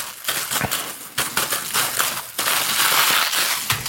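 A foil balloon is crumpled and crushed into a small wad to condense it as garbage, giving a dense, loud crinkling and crackling that runs continuously with brief pauses and no talking.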